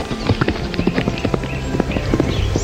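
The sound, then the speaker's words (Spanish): Horse hooves clip-clop in a steady, rapid rhythm, a run of sharp hollow knocks at moderate loudness with no voices, continuing evenly throughout like a horse trotting off. “Un día, el caballo escapó a las montañas”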